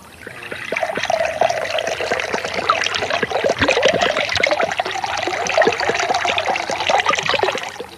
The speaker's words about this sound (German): Du schaust aus, wie, wie wenn du sehr durstig wärst. willst du was trinken? Soda Wasser. Ah, okay. Ich schenke dir was ein.